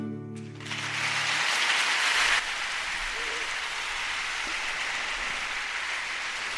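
A final held musical note fades as a crowd's applause takes over, a dense, steady wash of clapping that swells briefly, then drops slightly and continues evenly to the end.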